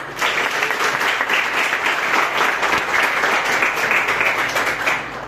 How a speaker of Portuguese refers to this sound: As palmas oram ao Senhor.